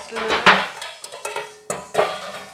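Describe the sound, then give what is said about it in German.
A few sharp metallic clanks and knocks as a spätzle press is set on a pan and a large bowl is placed beside it, with scraping in between and faint background voice. “Das lege ich in die Pfanne rauf und nebenan tue ich eine grosse Schüssel”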